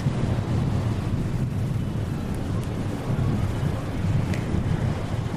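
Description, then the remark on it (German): Steady outdoor wind buffets the microphone with a continuous low rumble, while ocean waves wash and churn underneath at a constant, fairly loud level, with no voices present. “So, ich werde jetzt noch ein bisschen den Wolken lauschen, den Wolken lauschen, den Wolken lauschen und mir die Wellen angucken.”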